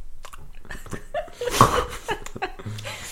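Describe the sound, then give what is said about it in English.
Chewing Swedish berries candy, with irregular crunchy bites and wet mouth noises right against the microphone, plus a faint breathy chuckle. “Yeah, and If- she, and she said how gross it is to chew into the microphone.”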